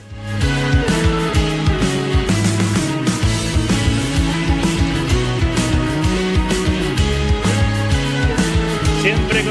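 A loud, full music track plays continuously, with a steady driving beat, strong bass line and bright melodic layers filling the mix from start to finish, no talking over it.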